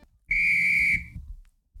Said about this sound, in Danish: Hvad betyder det der fløjt? vi lige hørte der. Det her fløjt, ja. det ville sådan sætte kampen i gang.